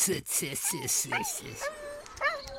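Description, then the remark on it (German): A male poodle on a walk whimpers in frustration in a string of high, thin whines, several short rising cries, wanting to go to a female dog up ahead, with a person talking underneath and faint outdoor background noise. “Weint der jetzt? Ja, der möchte so gerne zu der Hündin da vorne, die findet er toll, aber da soll er jetzt nicht hin.”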